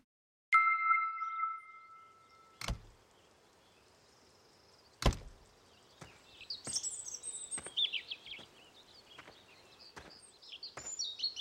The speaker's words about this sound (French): Ce que vous entendez, c'est le chant d'un rouge-gorge mâle. Il est mignon, mais c'est un oiseau extrêmement territorial. Il s'est installé ici car il y trouve à manger.